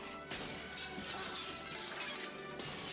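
Glass windows shatter in loud, sustained crashes in a film scene, bright tinkling debris spilling through. A fresh burst of smashing hits near the end, with no voices heard.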